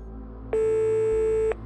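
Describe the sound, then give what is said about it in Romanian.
A single ring tone through a phone earpiece while speed-dialing a friend, a steady electronic tone lasting about a second, then cutting off, leaving a low background hum. “A sunat odată, dar apoi s-a oprit.”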